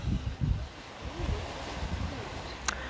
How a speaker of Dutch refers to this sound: Ik wilde in ieder geval ook even het geluid van de zee laten horen.